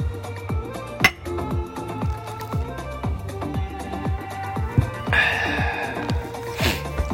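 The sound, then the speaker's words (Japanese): Glasses of shochu clink together for a toast, a bright ring near the start and another near the end, set over a steady, thumping music beat with no voices. “是非皆様もお好きな焼酎をご用意していただき一緒に乾杯しましょうでは焼酎で乾杯”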